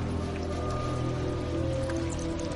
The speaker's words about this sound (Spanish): Ha comenzado la estación de lluvias en Taiwán y hay goteras por toda la casa.